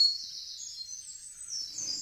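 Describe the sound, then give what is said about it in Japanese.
Wild birds sing in a morning chorus in highland forest on the Kirifuri Plateau, Japan, recorded in 2021: a thin, high-pitched trilling that runs unbroken and fairly faint throughout, with a soft low rustle near the end and no voices. “日本国中にとどまらず、広く海外に迄音源を求めて収録した鳥の声をご紹介しています”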